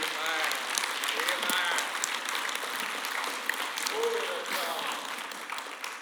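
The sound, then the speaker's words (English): A church audience claps their hands to the Lord in a dense, sustained burst of applause, with scattered voices and shouts rising over the steady clatter throughout. “Someone clap your hands to the Lord today.”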